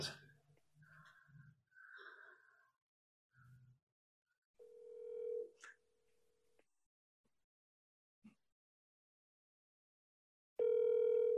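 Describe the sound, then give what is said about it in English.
A phone call's ringing tone: a steady electronic beep holds for about two seconds, followed later by a louder, buzzier tone at the end. Faint murmurs and breathy sounds come before it. “All right, I'm gonna give him a quick ring.”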